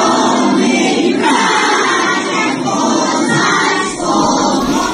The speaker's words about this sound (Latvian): Patvērtnēs slēpjas arī skolēni. Sociālajos tīklos izplatīts video, kā bērni ar pedagogiem patvērtnē šorīt dziedājuši Ukrainas himnu.